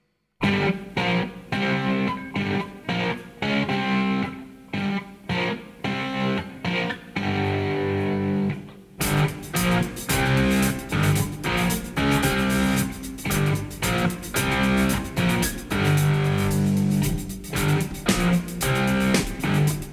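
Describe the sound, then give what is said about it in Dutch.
A distorted electric guitar plays a simple, chunky chord riff in short repeated stabs, the opening of a British rock band's song recorded in December 1971; about halfway through, drums and a full band crash in and the riff continues, loud and steady. “de akkoorden die, die bijvoorbeeld menig beginnend gitarist even speelt als je in een muziekwinkel een elektrische gitaar uitprobeert?”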